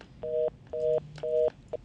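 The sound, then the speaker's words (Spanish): A telephone disconnect tone after a dropped call: three evenly spaced, steady mid-pitched beeps, each about a quarter second long, then a brief clipped fourth beep, with no talking. “Se cayó la llamada.”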